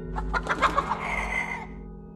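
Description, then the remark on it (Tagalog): Two chickens clucking in a quick burst of short, agitated notes, followed by a longer drawn-out squawk that fades, with a low hum underneath, as a folk healer has them killed. “Nakita rin namin na ipinapatay na ng albularyo ang dalawang manok.”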